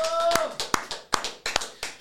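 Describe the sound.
Steady rhythmic hand clapping for a participant of the show El Billetazo, around six sharp claps at an even pace, moderately loud, with a brief voiced or whistled tone at the start.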